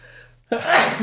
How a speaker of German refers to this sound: Gesundheit. Ja, sowas ist, ähm, kommt mal vor, ne?